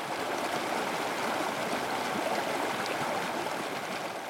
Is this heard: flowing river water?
yes